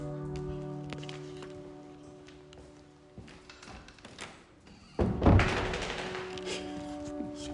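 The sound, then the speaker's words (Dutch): A dog shakes its head, its ears slapping in a quick, loud flurry about five seconds in, over a low steady hum, with softer thumps and rustles before it. “knallen met die oren altijd.”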